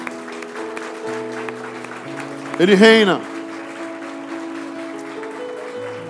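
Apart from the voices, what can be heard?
audience applauding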